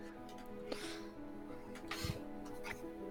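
Soft, breathy snoring of a woman, a few raspy snuffling breaths over a quiet low hum, with no one talking.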